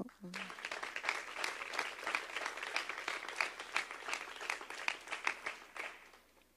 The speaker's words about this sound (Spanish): ¿Le puedes dar un aplauso a Dios?